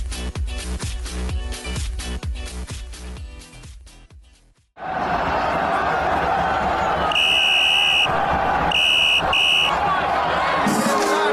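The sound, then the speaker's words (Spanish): A referee's whistle shrills over a roaring stadium crowd, signalling the end of the match: one long blast followed by two quick short ones, loud, after a stretch of rhythmic music fades out. “suena el pitido del árbitro y el encuentro finaliza.”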